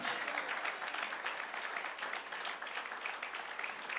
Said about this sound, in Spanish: Bendito sea el nombre del Señor. Vamos, aplauda fuerte al Señor en este día.